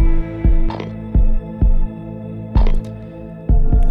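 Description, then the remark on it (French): Washing machine number 5, just loaded with laundry and started, turns its drum over a steady motor hum, with irregular heavy thumps every half second or so as the load tumbles, fairly loud, with no voices. “présence dans cette antichambre de la neurasthénie pour faire une lessive et enfourne mon linge de la machine numéro 5, comme invité par son hublot béant.”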